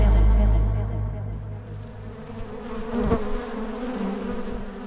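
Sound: bees buzzing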